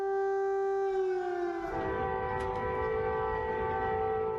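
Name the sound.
air raid sirens wailing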